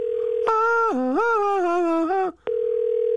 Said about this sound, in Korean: 3287님한테 한번 전화 한번 걸어볼게요. 전화 걸고 있습니까?